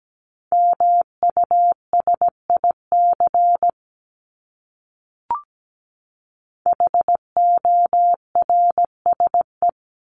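A single steady mid-pitched tone keyed on and off in crisp dots and dashes, spelling out common words in Morse code at 17 words per minute, in two bursts separated by a pause and a faint click, with no voices.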